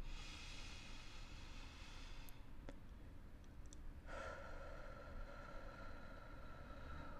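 A long, slow intake of breath, soft and airy, rising gently over a few seconds against a quiet background hiss, with no talking.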